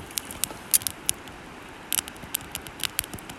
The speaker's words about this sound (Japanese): なんか水の流れをすごくこう感じていいんですよね。なんか夏場はカエルとかですねが賑やかだったりとかするんですけどもう冬は本当にこの川の音がずっと聞こえてるっていう